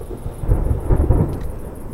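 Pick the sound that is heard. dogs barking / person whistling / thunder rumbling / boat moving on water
thunder rumbling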